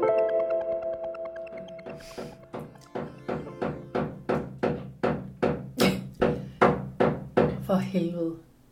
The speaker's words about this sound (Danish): okay, det er min overbog, der laver et eller andet, jeg aner ikke, hvad han laver. Øhm, ja, der er nogen, der banker ovenpå.